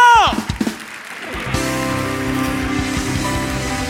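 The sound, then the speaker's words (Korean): A church audience breaks into steady, dense applause of thanks and glory to the Lord that fills the second half, mixed with sustained music chords, after a brief falling tone and a few sharp knocks at the start. “감사와 영광에 큰 박수 올려드리며 주님께 나아갑시다.”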